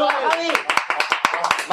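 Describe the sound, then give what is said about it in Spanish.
An audience breaks into applause, many hands clapping in a quick, uneven patter, with voices and cheers rising over the claps at the start. “un aplauso.”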